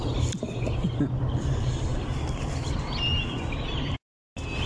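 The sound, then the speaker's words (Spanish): Birds chirp and sing over a steady, dense outdoor hum, with thin whistled calls rising now and then; the sound cuts out briefly near the end. “Te dejo un poquito del concierto de los pajaritos.”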